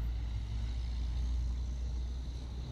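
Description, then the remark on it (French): Steady street traffic rumbles in the San Juan de Rurigancho district of Lima, a continuous low drone of car and truck engines with a faint hiss of passing vehicles and no speech. “Nous sommes à Lima, dans le district de San Juan de Rurigancho, l'un des plus peuplés de la capitale avec son million d'habitants”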